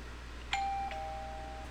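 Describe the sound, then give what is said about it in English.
An installed doorbell chimes a two-note ding-dong, the second tone ringing out and fading slowly. It sounds clear over a low background hum, with no one talking. “We had a doorbell install.”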